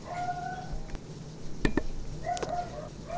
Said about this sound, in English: Sorry about that particular dog.